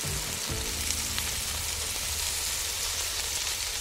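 Food frying in a pan, a steady, dense sizzle and crackle of hot oil that holds at an even level throughout, with no voices over it.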